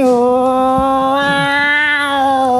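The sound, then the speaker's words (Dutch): A person imitates the yowl of a cat in a garden with one loud, drawn-out nasal wail, held steady for nearly three seconds with a slight wavering rise partway through. “Ik, eh, nee, eh, ik, had een cross kat in mijn, in mijn tuin.”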